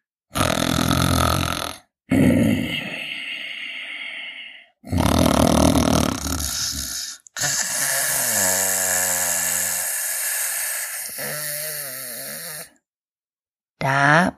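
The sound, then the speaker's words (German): Loud, rasping snores of a wolf sleeping under a tree, drawn out and repeating in about five long breaths separated by brief pauses. The snoring sounds like a human voice imitating an animal's heavy, growly sleep-breathing. “Dort aber sah sie auf einmal den schlafenden Wolf unter dem Baume liegen, laut schnarchend, so dass die Äste zitterten.”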